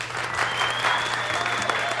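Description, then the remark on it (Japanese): A crowd of Disney Animation employees applauding steadily, dense clapping mixed with scattered cheers and whoops, loud and continuous throughout with a faint steady hum underneath. “従業員たちは歓声を上げる”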